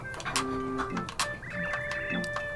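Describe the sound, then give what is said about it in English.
A pencil being sharpened: a steady mechanical whirring grind with sharp scraping bursts and a few faint tonal whines, running continuously for a couple of seconds with no voices. “You're scraping the because you sharpen the pencil.”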